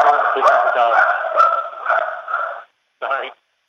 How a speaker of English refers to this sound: this is a dog. Sorry.